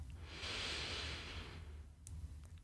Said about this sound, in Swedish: Andas in.